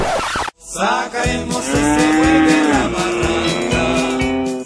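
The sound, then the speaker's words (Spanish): A cow lets out one long, loud, drawn-out moo lasting several seconds, with a steady rhythmic low thumping running underneath it. “En cambio, las vacas, antílopes y búfalos pastan muchas horas al día.”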